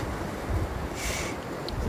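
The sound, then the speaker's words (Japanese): Steady, soft wash of ocean waves on a very shallow beach with white sand and green water, with no distinct breakers, blended with low wind rumble buffeting the microphone. “えー、来ました波があるんですけどすごく遠浅なんですかねのすごいあの夏の海みたいに緑色で砂が白くて砂浜”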